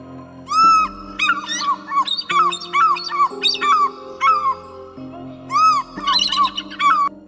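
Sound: birds squawking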